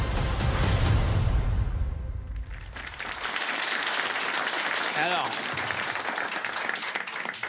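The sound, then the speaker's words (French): Steady audience applause fills the second half, a dense, even clatter of many hands, preceded by a few seconds of deep, booming rumble. “n'applaudissez pas ce film.”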